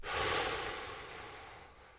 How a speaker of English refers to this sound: Take three deep breaths. We'll do it together three times.